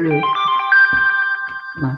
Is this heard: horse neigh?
no